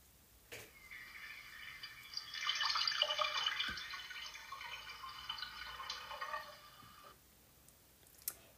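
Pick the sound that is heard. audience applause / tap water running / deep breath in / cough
tap water running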